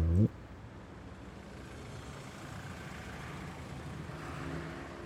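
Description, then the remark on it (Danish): A brief voice at the very start, then a steady low rumble of road traffic as many cars pass along a road in a continuous wash, swelling gently toward the end. “Han begynder at tælle, hvor mange biler, der kører forbi.”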